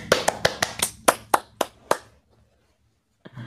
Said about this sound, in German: Yay, Applaus.